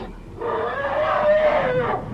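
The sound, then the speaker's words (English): A single drawn-out African elephant trumpet in Africa, given on command, loud and brassy, its pitch climbing slightly then sliding down over about a second and a half, with no talking over it. “Louder! Good elephant.”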